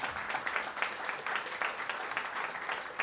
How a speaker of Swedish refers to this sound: ja, det är värt en applåd, absolut.